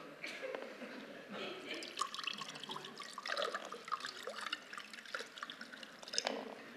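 Water is poured through a makeshift coffee filter with holes pressed into it, a steady splashing trickle broken by irregular drips and spatters for several seconds, with no one talking.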